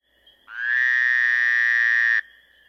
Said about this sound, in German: Der Frosch kommt in die Molkerei, fragt der Verkäufer, was darf denn sein? Der Frosch quakt.